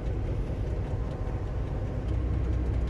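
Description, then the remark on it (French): A tourist railcar's diesel engine rumbles steadily as the driver applies a little engine power on a cool morning after rain, with wet rails; continuous and fairly loud, with a faint mechanical hum and occasional light rattles over the drone; no voices. “Donc je donne un, petit peu de puissance moteur.”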